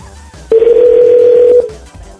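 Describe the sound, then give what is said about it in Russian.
A single steady telephone ringback tone sounds for about a second as a call dialed about a minute earlier connects, loud and clear, then cuts off, with a quiet low background hum before and after. “Там, ну, смотрите, сколько прошло времени до соединения? Я набрал минуту назад.”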